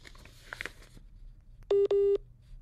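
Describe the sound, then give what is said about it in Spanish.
A phone call with Sergio Mayer drops as the signal cuts out: faint line noise and a few soft clicks, then two loud, steady, mid-pitched busy-tone beeps in quick succession, followed by quiet line hiss. “Bueno, justo se le fue, se le cortó la señal.”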